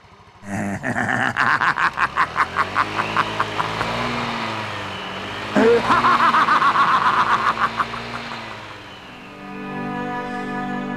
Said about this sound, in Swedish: Plötsligt kommer en hand ut genom magen på en av passagerarna och vi hör Freddy Krugers elaka skratt och bussen drar iväg.